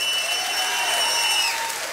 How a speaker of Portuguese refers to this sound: Você consegue fazer um barulho de alegria? Qual é o barulho de alegria? Dá um aplauso ao Rei da Glória e vamos fazer um barulho de alegria aqui.